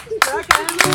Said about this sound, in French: Voilà, on peut applaudir.